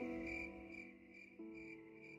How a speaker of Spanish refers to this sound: ¿Se ha escuchado el grillo?